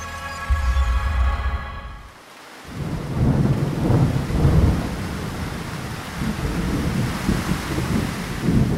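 A steady downpour hisses over deep, rolling thunder. The rumbling swells and fades in long waves, loud, and no voices can be heard.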